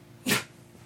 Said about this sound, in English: bless but, you, uh, Sammy. Uh, yeah, bless you, dog.